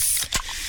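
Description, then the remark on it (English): A can of Pepsi cracks open with a sharp pop, followed by a steady fizzing hiss of carbonation that continues to the end. “Oh, yeah, that's the sound of a freshly opened fizz filled Pepsi.”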